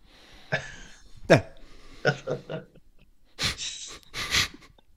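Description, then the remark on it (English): A sneeze amid a string of short, breathy vocal bursts and gasps, ending with two loud, hissing bursts of air. No words are spoken. “Well, on that sneeze, I shall give you a rundown of chapter 32 of book 4”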